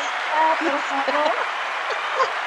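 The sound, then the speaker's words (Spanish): A steady wash of applause from a sound effect played by the producer for a female guest, dense crackling clapping at an even level throughout, with voices briefly talking over it in the first half. “por eh, favor, el productor, si le mando unos aplausos, por favor, a la invitada.”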